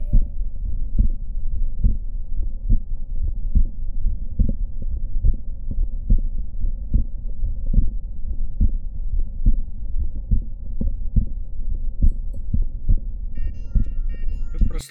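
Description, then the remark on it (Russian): A heart auscultation recording from a patient with mitral valve prolapse: steady, muffled low thumps beat in a regular rhythm against a constant low hum, with no talking throughout. “слушали записи звука сердца, отобранные из большого потока пациентов с пролапсом витального клапана на протяжении трехлетнего периода.”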